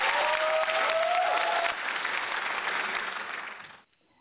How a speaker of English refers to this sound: Audience, big round of applause for all friends.